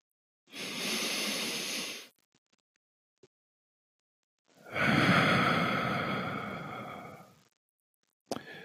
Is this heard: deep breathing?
yes